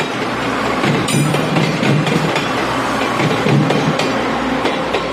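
A steady, continuous rumble of a commuter train running along the rails, with faint rhythmic clacks and rattles over a loud, dense low-frequency roar. No one speaks.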